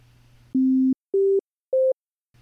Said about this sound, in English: So, that nice round peaked version of a wave we're used to seeing on graphs and so on is called a sine wave and it sounds like this.